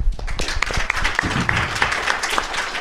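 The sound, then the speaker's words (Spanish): An audience applauds steadily, a dense, crackling wash of many hands clapping at an even, fairly loud level for about three seconds, with a few sharper claps standing out, as a young person comes up to collect a prize. “Un aplauso para...”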